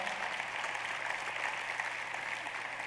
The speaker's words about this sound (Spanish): ¿Cuántos creen que Dios tiene una puerta abierta para todos? Denle un aplauso al Señor por esta iglesia tan maravillosa.